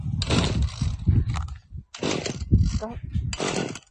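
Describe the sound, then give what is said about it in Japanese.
A gasoline chainsaw engine sputters and buzzes in three short, rough bursts, not yet cutting, dying out each time instead of catching, with people's voices mixed in underneath. “まだ切ってないですよ。ブーンって音。全然かかんないです、これ。”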